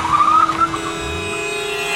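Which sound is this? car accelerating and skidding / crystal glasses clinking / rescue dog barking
car accelerating and skidding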